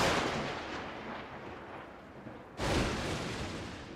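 A loud explosion sound effect: a broad, rumbling blast that slowly fades, then a second sharp detonation bursts in near the end and rolls on. No voices.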